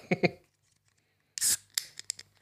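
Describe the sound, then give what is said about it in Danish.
A Session IPA beer of 4.7% alcohol is opened: two sharp metallic clicks, a pause, then a brief loud fizzing hiss and a few crackling pops as the carbonation escapes. “ja, ah, der, var, der var lidt lyd på. Der bliver hældt op nu.”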